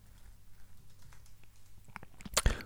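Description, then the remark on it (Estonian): Quiet, irregular clicking of keys on a computer keyboard, rising to a quick, louder flurry of keystrokes near the end, with no voices. “ma mõtlesin, et ma teen selle sujuvalt praegu, aga siis ma sain aru, et te niikuinii kuulete vaikselt, kuidas ma trükkisin.”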